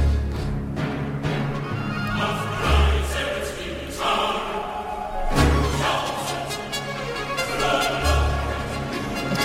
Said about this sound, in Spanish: Estamos escuchando el oratorio de Navidad